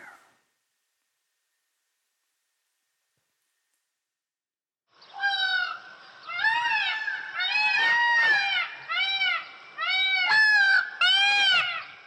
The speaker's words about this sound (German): Ja, du hörst richtig ist ein Pfau, der dich ruft und deine ungeteilte Aufmerksamkeit fordert. Kannst du ihn vor deinem inneren Auge sehen, mit seinem leuchtenden Gefieder, dem stolz erhobenen Kopf mit seiner Krone?